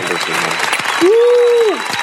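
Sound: applause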